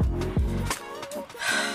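Heavy, ragged breathing: a quick series of loud, breathy huffs and gasps, like someone out of breath and panting after exertion.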